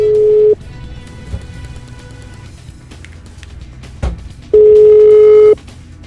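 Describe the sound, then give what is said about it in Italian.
A telephone ringback tone as a radio show, the Morning Show of Radio Caffè, places a call: a steady, pure electronic beep sounds briefly at the start, then after a long pause returns for about a second, loud and clear over faint background hum. “Però un colpo di telefono a”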